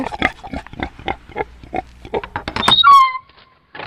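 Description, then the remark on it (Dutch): Domestic pigs in an estate's large vegetable garden, foraging for fallen pears, grunt in a rapid, snuffling series of short bursts, then a loud, high squeal with sliding tones near the end before a brief pause and one last grunt. “En we worden verwelkomd door de huisvarkens Ginger en Knor.”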